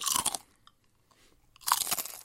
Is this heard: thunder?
no